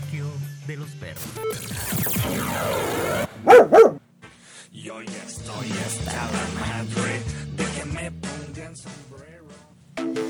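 Two sharp, loud dog barks burst out close together midway through, over an upbeat musical backing that continues around them.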